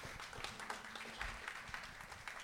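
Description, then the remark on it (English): A crowd applauds a nonprofit's executive director with steady, dense clapping throughout, a continuous wash of many overlapping hand claps at a fairly even level with no speech on top. “and we got to ra- give her a round of applause.”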